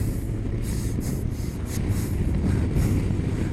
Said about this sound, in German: Ja. Die ersten Meter vom Motorrad. Ah, Gleichgewicht merke ich schon ein bisschen. Die erste Mini-Kurve. Beschleunigung.